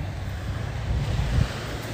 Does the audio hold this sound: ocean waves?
yes